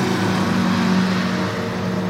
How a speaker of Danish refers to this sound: Der kommer der en lastbil der.